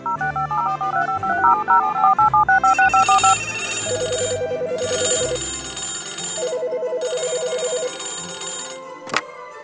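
telephone dialing and ringing

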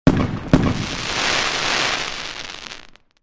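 fireworks exploding

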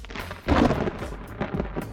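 rain and thunder outside

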